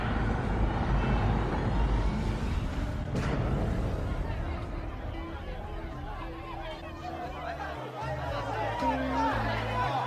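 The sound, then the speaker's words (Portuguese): A loud, dense hubbub of many overlapping voices, with no single speaker standing out, continuing steadily throughout with shouts and chatter blending into a constant crowd roar: merchants shouting over one another for customers' attention, announcing their services and products. “Então, subitamente, outra porta se abre automaticamente, revelando à sua frente um grande vozerio.”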